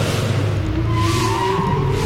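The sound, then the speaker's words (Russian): A snowmobile engine drones loudly and steadily for about two seconds, its rough low rumble joined by a whining tone that climbs in pitch as it revs. “Как ветер, как олень и как мотор снегохода даже.”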